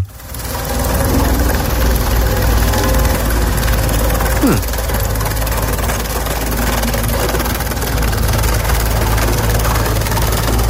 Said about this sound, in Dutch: Ik hoor eigenlijk alleen maar stoomwals. Ja? er blijft helemaal niks van over. Niets.